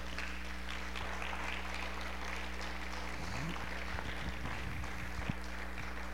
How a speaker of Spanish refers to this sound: ¿Cuántos pueden aplaudir al Señor esta tarde por eso?